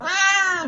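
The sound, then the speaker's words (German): A single drawn-out, fairly loud cat meow, holding a steady tone before dipping slightly in pitch at the end. No other sounds around it. “Sie kann zwar miauen,”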